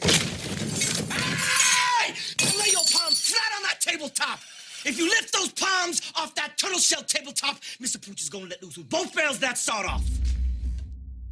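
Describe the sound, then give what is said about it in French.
In a scene from Quentin Tarantino's 2012 western Django Unchained, Leonardo DiCaprio slams his fist on a table and crushes a glass, giving a loud, bright shattering crash at the start, followed by a man speaking forcefully, with a low rumble near the end. “Et en tapant du poing sur la table à ce moment-là, Leonardo écrase violemment un verre”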